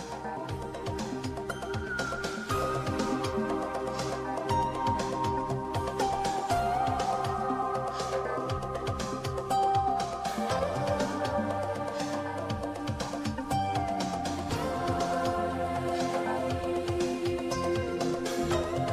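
Dense electronic ambient music plays continuously at a steady level, with layered sustained synth tones, slowly gliding melodic lines and a low pulsing bass texture, no voices present.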